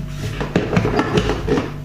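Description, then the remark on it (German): A water tank that was taken out is set down and hung back into place: several hollow plastic knocks and clunks over about two seconds, with a steady low hum underneath. “Jetzt haben wir das Wasserbehälter aus. Und stellen ihn hin, hängen wieder hier ein.”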